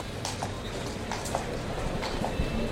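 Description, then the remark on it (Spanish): Irregular clip-clop of a picador's horse's hooves walking out through the gate of the bullring at the Feria de San Lucas, a handful of soft strikes over a steady murmur of crowd noise. “Se marcha el picador de la puerta.”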